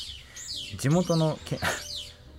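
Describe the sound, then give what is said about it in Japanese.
Wild birds chirp outdoors in a quick series of high, sweeping tweets, fairly faint and in the background, while a person talks briefly and laughs over them. “で鳥も鳴いてるじゃないですか、うん、配信版ね、はい、そうするとさ、うん、この鳥の鳴き声も BGM なんじゃないかと思われてそうで、ちょっと心配なんですけどこれマジで鳴いてますね マジで鳴いてますね すごいですよね”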